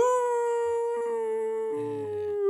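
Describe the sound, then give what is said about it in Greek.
A person imitates a wolf with one long, sustained howl, steady in pitch and slightly hoarse, with a brief lower wavering tone entering near the end. Loud, no talking. “απλά έκανε howling σαν λύκο.”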